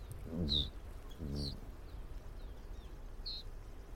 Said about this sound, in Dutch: Hier, kijk. Rietgors is dit. Je hoort dat